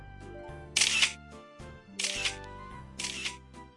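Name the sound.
camera shutter clicking repeatedly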